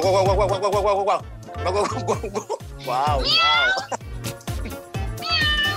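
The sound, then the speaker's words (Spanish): A person imitates a cat, voicing a series of drawn-out, wavering meows in close succession over a steady rhythmic beat, loud. “Ok, ¿cómo hace, el ¿cómo hace el perro y cómo hace el gato? Primero el gato.”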